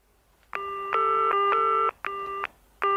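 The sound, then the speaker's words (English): A telephone being dialed to call a Jane: a quick run of electronic keypad tones, each a steady dual-pitched beep of varying length with short gaps between, clear with no voices. “Wade had just been overturned by the Supreme Court, my first thought was to call a Jane.”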